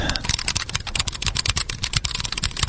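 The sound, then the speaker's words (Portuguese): Rapid, steady typing on a mechanical keyboard with linear Cherry MX Red switches, dense overlapping clacks with no voices, continuous for the whole stretch. “O, esse aqui é o meu, meu Cherry Red.”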